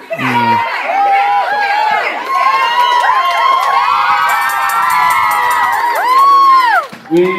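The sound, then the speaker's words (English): A rowdy crowd cheers and shrieks loudly for about seven seconds, many voices overlapping in high, rising and falling whoops with a brief dip near the end. “Sort of reminds you of a hen party, doesn't it?”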